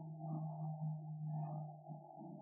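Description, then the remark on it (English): A low, steady drone of an airplane flying overhead near an airport, a continuous humming rumble that swells slightly and holds, heard fairly faintly with no one talking. “Airplane noise, hold up.”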